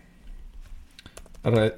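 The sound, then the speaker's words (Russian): A handful of light, irregular key clicks from a computer keyboard as a person types a dream-dictionary search about parents, a car and an accident, followed by a short burst of a person's voice at the end. “вот так я введу. Родители, авария, машина, сонник.”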